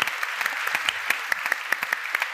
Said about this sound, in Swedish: Så vi tar en applåd när du träder av, men också en applåd för vår, vår eh, nästa pitchare